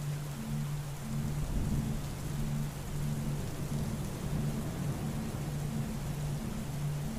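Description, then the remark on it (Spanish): A summer thunderstorm: steady, dense rainfall hisses evenly throughout, with a deep rumble of thunder rolling underneath and a faint low droning hum pulsing in the background. “A la mayoría de las personas les gusta observar una tormenta de verano y la viven en forma plena, disfrutándola algo en ellas le transporta cierta sensación de calma.”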